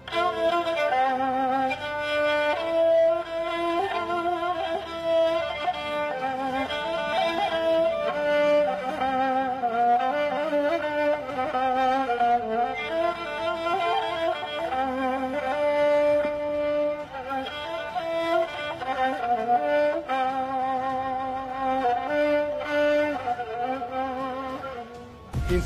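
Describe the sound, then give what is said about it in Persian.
A kamancheh plays a continuous, expressive bowed melody with sliding, sustained notes, steady in loudness throughout, with no talking. “صدای کدام ساز است سی ثانیه شروع شد بیست و چهار این صدای کدام ساز بود کمانچه”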